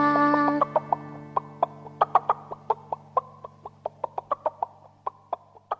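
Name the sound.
hen clucking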